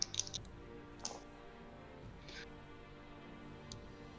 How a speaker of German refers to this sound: Wie geil er mehrere Würfel würfelt fürs Schaden. ja, 2W, 2W6 auf einmal.